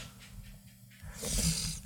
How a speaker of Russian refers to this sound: Да, собака лает.